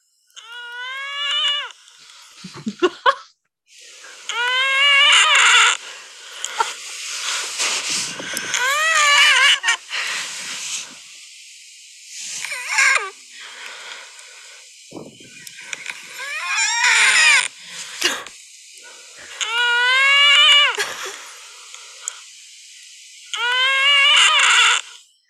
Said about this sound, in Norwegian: Jeg kan ikke tro min vanlige pust høres sånn her ut nå. så dere skal få høre opptaket, syns jeg. Ok. Det her er meg som bare puster vanlig.